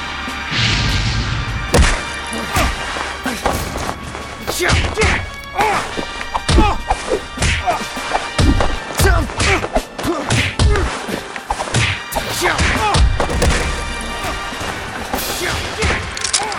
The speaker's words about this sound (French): Le Caire, dans un immeuble en chantier.